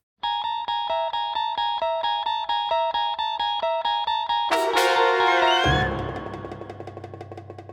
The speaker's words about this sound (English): No, guys, there's a reason I put that theme there from the Twilight Zone, and I'll tell you why.